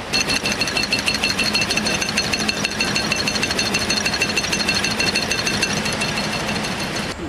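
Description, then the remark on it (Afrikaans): Honeybush tea-cutting machines run loudly and steadily at a production plant, cutting the tea finely into pieces about 1 mm long. A dense mechanical clatter with a rapid, chopping pulse never lets up, with no voices. “Ja, die geluid wat julle nou hier hoor, is nou kerwers wat loop om tee fyn te kerf.”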